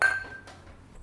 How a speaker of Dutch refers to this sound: laten we ja. klinken op, uh, op, eh, Gusta. Op, ja, dat ze van de vat is. gezondheid. Ja, gezondheid.